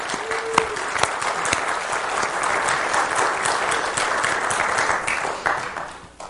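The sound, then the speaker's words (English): A crowd applauds steadily with dense, overlapping claps, holding a fairly even loudness for about five seconds before quickly tapering off at the end. No one speaks over it. The applause welcomes new members just announced at a church. “if you want to receive that kind of round of applause in the future, there's a membership class on October 1st from 9 to noon.”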